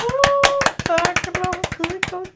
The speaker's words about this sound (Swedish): En applåd okay? för det.